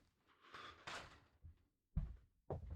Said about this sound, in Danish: Hvis jeg lige åbner døren, kan du, kan du lige prøve at gå ud og spørge efter en lighter? Jo, det kan jeg godt. Du kan også bare lige selv åbne døren. Jeg åbner.